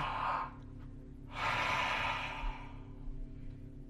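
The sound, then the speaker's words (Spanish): Two strong, deep breaths during a guided breathing exercise: a broad airy exhale fading out, a short pause, then a longer forceful rush of air. No voices, just a low steady hum beneath. “Siga respirando fuerte. Siempre fuerte seguridad.”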